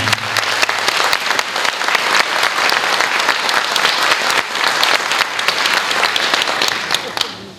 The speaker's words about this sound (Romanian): Mulțumesc primarului Sorin Megheșan, un om deosebit, și să-l aplaudăm.